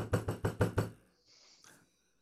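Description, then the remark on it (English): Five loud, heavy knocks pound on a door in a quick, even rhythm, followed by a faint scuffling and a brief higher-pitched sound as the banging stops. “I go up and bang on the door of Gorga's door.”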